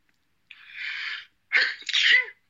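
A loud sneeze: a breathy hissing inhale builds for under a second, then a sharp explosive burst follows, trailing off quickly. No talking accompanies it.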